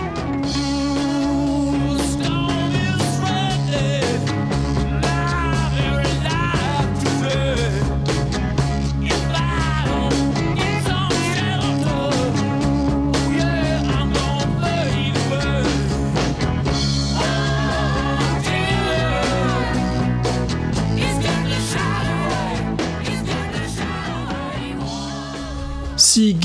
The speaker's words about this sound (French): …, dont vous avez entendu un, petit extrait, est mon morceau favori des …